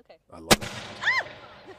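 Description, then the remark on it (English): A single sharp, loud blast from a t-shirt cannon firing a t-shirt cracks out, followed by a brief ringing tail as people talk and react excitedly right after the shot. “The Invention of the T-Shirt Cannon”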